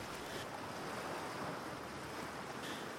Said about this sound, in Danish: hvis bølgerne forstyrrer dig i din nattesøvn, så tror jeg godt, jeg kan garantere dig, at så er Vesterhavet også sundhedsskadeligt på støjområdet.